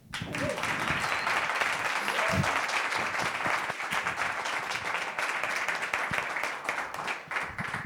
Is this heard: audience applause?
yes